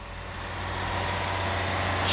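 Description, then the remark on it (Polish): A truck engine rumbles steadily with a low droning hum as the truck drives off, growing gradually louder, with no voices present. “Sapnu radio, a hižo odjedu. Jako nakładne auto prawie wiele uniesu.”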